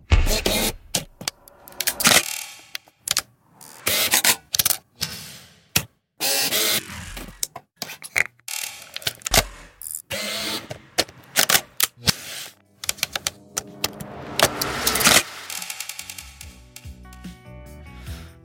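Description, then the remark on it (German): A series of sharp mechanical clicks and whirs from a Sony Alpha camera, with bursts of rapid shutter-like clatter and brief pauses between them, no talking. “um Aufnahmen von den verschiedenen Sounds der Sony Alpha zu machen”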